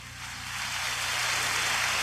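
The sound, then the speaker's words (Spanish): Dense, hissing patter like rainfall, an applause-style sound effect that swells slightly in the first second and then holds steady and fairly loud, with no voices. “Mira, te voy a dar un aplauso que parece lluvia.”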